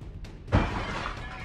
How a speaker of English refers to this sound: One of those horrible people just shot an arrow through the window upstairs.